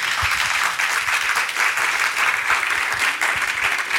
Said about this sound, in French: On peut vous applaudir. Merci, merci beaucoup. Merci.